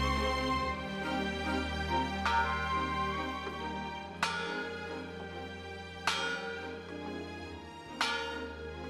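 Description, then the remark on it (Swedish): A large, heavy bell, a replica of the Liberty Bell driven around Texas, tolls slowly about six times at uneven intervals, each strike ringing out with rich overtones and a long fading resonance over a steady low hum. “låter en eh, kopia av Liberty Bell som körs runt i dagens Texas och ringer vid eh, soldatbegravningar.”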